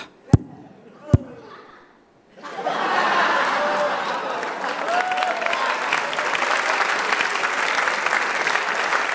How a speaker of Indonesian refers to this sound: komik barusan lucu. Tapi nggak lucu amat. Ya gue kasih tepuk tangan dua setengah.